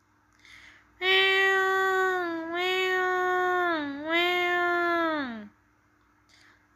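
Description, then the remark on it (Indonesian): A kitten meows loudly in one long, drawn-out cry lasting several seconds, its pitch wavering and dipping before trailing off, with no talking around it. “Anak kucing mengeong dengan nyaring.”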